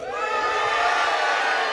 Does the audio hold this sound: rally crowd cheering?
yes